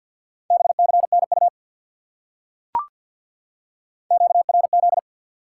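Two short bursts of rapid Morse code beeps at 50 words per minute, sending common QSO (radio contact) elements, in a steady mid-pitched tone, fast dots and dashes separated by a pause with a single sharp click, no voices.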